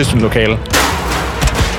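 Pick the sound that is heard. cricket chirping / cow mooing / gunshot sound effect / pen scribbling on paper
gunshot sound effect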